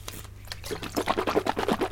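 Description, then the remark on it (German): A sip of drink, with wet slurping and swishing sounds that come in quick, rhythmic bursts, growing louder toward the end. No one speaks. “Ich muss was trinken, ja.”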